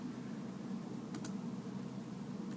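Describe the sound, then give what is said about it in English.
A couple of quick keyboard key clicks, close together, over a steady low room hum, as if someone is typing briefly on a computer keyboard. Nobody speaks. “Typing it in.”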